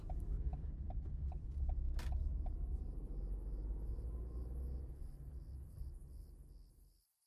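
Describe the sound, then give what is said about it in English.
A car engine rumbles low and steady as the car is parked at a convenience store to refuel, with faint clicks and a brief high chirp, then the engine cuts off and the sound drops away to silence near the end. “I'm gonna park and fill her up first.”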